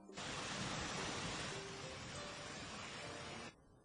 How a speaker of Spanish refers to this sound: Si visitas la costa de Chiapas, las cascadas de Toquián y las nubes te permitirán una experiencia única desde el agua que vierte, desde las montañas del volcán Tacaná.